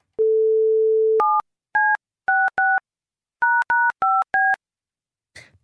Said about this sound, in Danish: Jeg fik, lige trykket, ja, jeg fik lige trykket hans nummer med lidt sas.